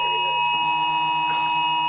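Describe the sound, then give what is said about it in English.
A mobile phone emergency alert tone blares: a loud, steady, buzzing electronic tone held unbroken for two seconds, with faint voices murmuring underneath. “In den USA zum Beispiel bekommt jeder einen Alarm aufs Handy, wenn sich gerade ein Tornado oder Starkregen nähert.”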